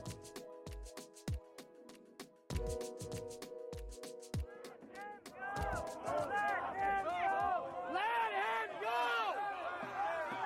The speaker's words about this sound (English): That's the sound of protesters attempting a de-arrest, which means freeing someone from police custody after an arrest has started.